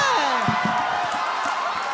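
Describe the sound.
A crowd cheers and claps at a steady loud level, with whoops and voices mixed into a dense wash of applause for the full two seconds.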